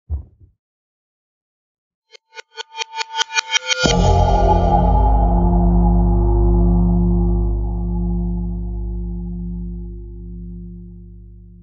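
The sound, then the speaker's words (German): A time travel transition effect: a quick series of pulses that speed up and grow louder, then burst into a loud, sustained whooshing rumble with a deep drone that slowly fades. “Und ich drücke den großen roten Knopf auf in die Schweiz, auf in die Vergangenheit.”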